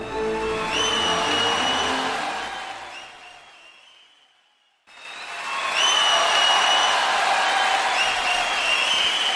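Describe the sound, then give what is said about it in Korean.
A large crowd applauds loudly and steadily to welcome a stage performance, the clapping fading away midway before a second burst of sustained applause cuts in abruptly and carries on to the end. “네, 박수로 청해 듣겠습니다.”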